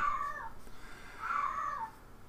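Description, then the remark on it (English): A cat meows twice outside the door, two drawn-out, wavering cries separated by a short pause, each muffled against a quiet background, with no one talking. “Oh, you hear the cat?”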